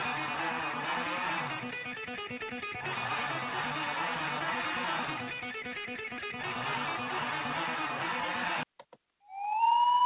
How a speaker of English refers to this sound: siren on, man, because Gino is on fire